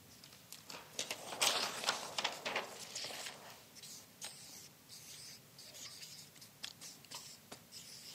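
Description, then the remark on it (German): A marker squeaks and scratches across a board in a run of short, irregular strokes, moderately quiet, with no one speaking. “Könnt ihr es lesen oder brauche ich einen anderen Stift?”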